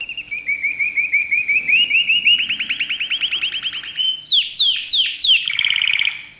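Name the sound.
canary singing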